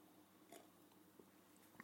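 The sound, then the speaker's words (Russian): Someone takes a quiet final sip of water, with soft mouth and swallowing noises at the microphone, then a sharper clunk at the very end. No one speaks. “Вывод номер шесть, последний, финальный глоток воды, секунду.”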